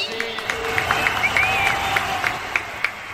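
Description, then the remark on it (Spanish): A festival crowd celebrating the fiestas patrias applauds the mariachi group in a steady, dense wash of clapping, with scattered sharper claps and a few high cheers or whistles rising above it throughout. “Un aplauso para ….”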